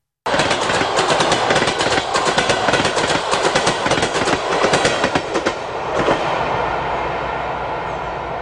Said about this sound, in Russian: Поезд ушел, ушел поезд, слышите, как поезд уходит?